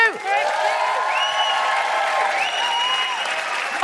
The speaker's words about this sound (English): Um, you have been an absolutely wonderful audience, Kingston. Thank you so much. Can I have a huge, huge round of applause for my incredible co pilot, Jessica Fostekew?